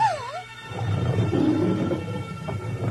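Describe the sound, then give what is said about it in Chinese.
A ferocious lion's roar: a deep, rough, rumbling growl that holds steady and loud for about three seconds, opening with a brief wavering, bending cry. No one speaks. “后来，魔王大吼一声，马上变成了一头凶猛的狮子。”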